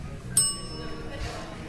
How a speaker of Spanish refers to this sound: Disculpe, este timbre me hace acordar al de mi abuela.